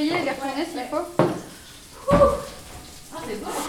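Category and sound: food or drink, food cooking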